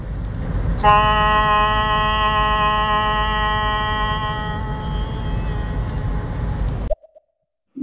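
A loud, steady horn blast with a rich, buzzy harmonic tone sounds continuously for about six seconds over low rumbling noise, then cuts off abruptly.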